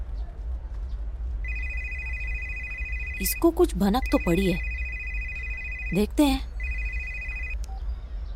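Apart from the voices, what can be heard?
telephone ringing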